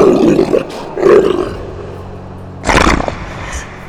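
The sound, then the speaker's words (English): A wolf jumping out from behind a thorn bush in a forest snarls and roars in three loud bursts, each a rough, gravelly growl with short pauses between, the last one the harshest and most explosive. “a wolf jumps from behind the thorn bush.”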